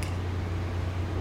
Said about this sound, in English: I apologize for the noise that may be very overactive in the background. I've got my dishwasher going, and the air is like louder than typical.